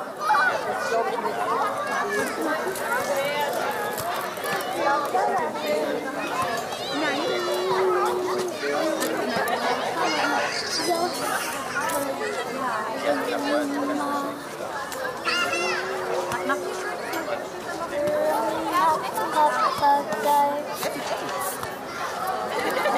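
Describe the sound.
Dense crowd chatter fills a summer evening at dusk in Berlin with overlapping voices, children shouting and playing among them, a steady, lively murmur holding at an even loudness throughout.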